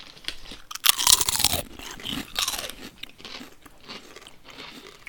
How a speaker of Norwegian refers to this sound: Dette er bra radio. Du, ka, tre karer tygger potetgull.